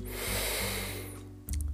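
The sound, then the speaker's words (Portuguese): A long, deep breath drawn in through the nose, a steady airy rush lasting over a second, followed by a brief low thump and hum. “E vai tomar uma respiração profunda”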